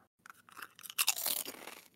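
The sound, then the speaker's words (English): A loud crunch of biting into a crisp chip, a sharp crackling bite followed by a second of brittle crunching, heard alone with no talking. “can you show us and we can guess what kind of chip it is?”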